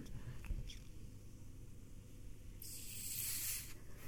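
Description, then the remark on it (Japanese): A fizzy drink can is cracked open for a toast with a sharp, bright hiss of escaping gas lasting about a second, over a faint hum with a faint click just before. “そうですよねちょっと乾杯をはいよしあ振るの大丈夫大丈夫でしょ”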